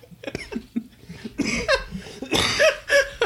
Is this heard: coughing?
yes